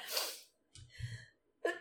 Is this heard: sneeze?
yes